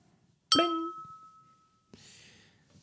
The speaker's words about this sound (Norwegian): Uh, vent litt, vi må, se, vi må plinge først. Uh, tar du og plinger glasset